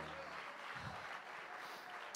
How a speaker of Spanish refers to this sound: Dios fuerte ese aplauso de alabanza al Señor.